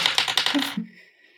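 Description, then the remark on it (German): A person rolls the dice again: a quick burst of hard clattering clicks, like dice tumbling across a table, rattling for under a second before settling with a short ringing tail. The roll lands on an eight. Fairly loud, no voices. “gut, äh, ich würfel wieder.”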